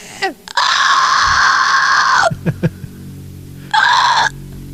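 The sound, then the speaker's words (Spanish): A voice imitates a child's shrill scream: one long, loud, sustained shriek lasting nearly two seconds, a few short vocal bursts, then a second briefer scream. No other sounds around it. “Oye, el niño que pega un grito.”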